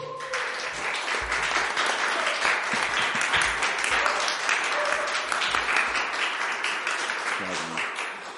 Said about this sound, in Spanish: Eh, les pido un aplauso, por favor.